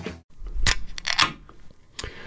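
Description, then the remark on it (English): A beer being opened: a sharp pop with a low thump, a brief fizzing hiss, then a softer click, with no talking. “The five o'clock pop is brought to you by Farmers Brewing Company.”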